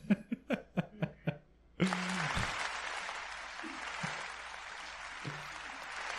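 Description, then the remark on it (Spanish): A quick series of rhythmic vocal bursts, like laughter, gives way to a crowd bursting into loud, steady applause that keeps going, dense and even, until the end. “Así que un aplauso para ustedes que no sabían.”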